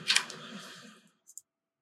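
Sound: nine dice being rolled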